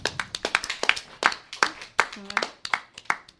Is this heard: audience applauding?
yes